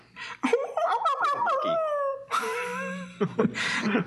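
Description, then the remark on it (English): A dog whimpers and yips in quick broken bursts, then lets out a long, drawn-out howl with a wavering pitch, ending in more whining cries. Fairly loud, with no talking. “I, I, wasn't prepared for a dog clip.”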